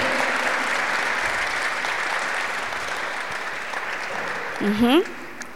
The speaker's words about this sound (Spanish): Y si tú estás sirviendo, ¿verdad? Que creo que es la mayoría que está sirviendo, por favor, dese un aplauso, por favor. Dese un aplauso fuerte, fuerte.